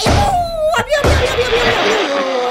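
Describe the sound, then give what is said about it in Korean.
A loud, punchy headbutt impact effect: a sharp double smack close together, followed by a lingering ringing tone over a busy, noisy background. “아 반장님 재밌긴 재밌었는데 제가 박치기로 입 다물겠습니다.”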